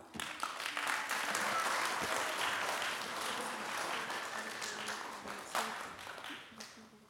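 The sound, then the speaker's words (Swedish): A crowd applauds steadily for about seven seconds, welcoming two people up to be interviewed about prayer. A dense wash of many hands clapping at once, holding loud before tapering off at the end, with some voices mixed in. “Så en stor applåd för dem.”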